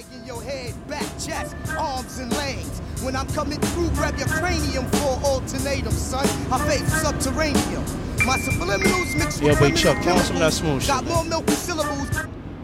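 A brief interlude snippet of a rapper's verse plays over a steady beat, sounding muffled and boomy as if coming from a car stereo, with a low engine-like rumble underneath throughout.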